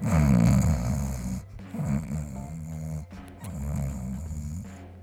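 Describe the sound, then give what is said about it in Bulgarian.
A person fakes loud snoring: three drawn-out, rattling snore breaths in a slow, steady rhythm, with no talking between them. “Просто и двамата с … трябва да си хъркаме този път.”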